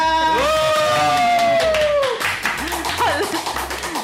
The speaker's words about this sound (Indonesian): Mana tepuk tangannya?